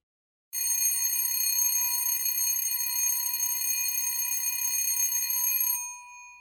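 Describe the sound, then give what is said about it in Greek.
A bright electric doorbell at a student's door, rung by a visitor, rings continuously for about five seconds, a steady metallic buzzing ring with no talking, then cuts off and briefly decays. “Χτύπησα και περίμενα. Ξαναχτύπησα.”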